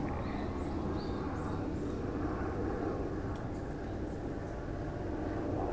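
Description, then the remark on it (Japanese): A loud, steady engine roar from a helicopter flying overhead fills the whole stretch, a broad rumbling drone that stays constant with no break, heard alone without anyone talking. “上空をすごい爆音で飛行機が飛んでますね。”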